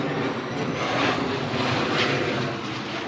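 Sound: airplane flying overhead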